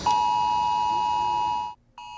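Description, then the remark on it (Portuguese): A loud, steady electronic emergency alert tone from a mobile phone, sent in a nationwide test of the United States emergency alert system, holds for nearly two seconds, breaks off briefly, then starts again, sounding piercing with no one talking. “Eu acabo de receber o alerta aqui no meu telefone pessoal e veja, também chegou a mensagem no meu telefone de trabalho.”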